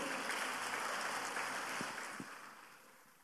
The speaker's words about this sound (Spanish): Dele un aplauso a Cristo Jesús, por favor.